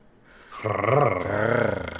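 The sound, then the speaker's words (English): A person growls in a low, rough, sustained rumble that swells in loudness and holds for over a second, sounding throaty and animal-like with no words spoken. “Uh, that person that's growling currently in your earlobes”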